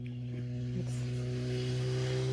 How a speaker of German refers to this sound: Jetzt sind wir auf einer Motorradpass-Ecke hier gerade.